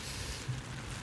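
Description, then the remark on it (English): Steady rain from a blustery rain storm pours down in a continuous, hissing wash with a faint low rumble underneath, fairly quiet, with no voices present. “Got a little rain storm pouring in here, but we're good.”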